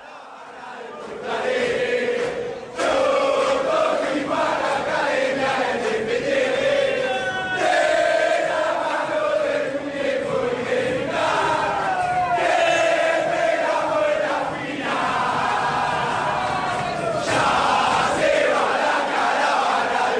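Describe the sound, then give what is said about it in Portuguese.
A large crowd of River Plate football supporters sings a rhythmic terrace chant in unison, loud and sustained, with melodic voices rising and falling together over a dense roar of the stands. “É a música …, de um artista …. Essa é a versão da torcida do River Plate.”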